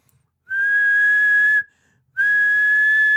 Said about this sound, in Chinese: 因为旧时候咱们这北京城里啊，这电车，这电车呀，只要一进站停车，要开车之前啊，这售票员一准拿出一哨来